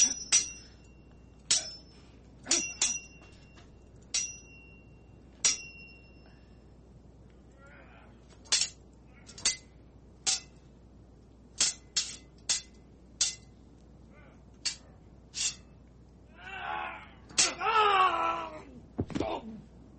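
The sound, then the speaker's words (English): A sword sound effect: around fifteen sharp, ringing metallic clinks of blades striking, spaced irregularly, ending in a rising, wailing swish and a final clang. “sword ratchetness, longest sound effect ever.”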